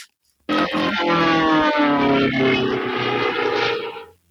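A steady, droning airplane engine roar starts abruptly and holds at a constant loud level for about four seconds before cutting off, with no voices over it.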